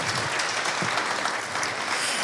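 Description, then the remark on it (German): Sustained audience applause for a professor being introduced as a speaker, a dense steady wash of many hands clapping at an even loudness throughout, with no voices rising above it. “Einmal einen großen Applaus”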